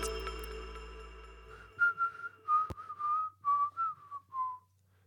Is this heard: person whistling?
yes